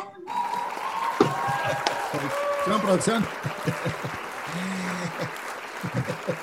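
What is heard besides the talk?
applause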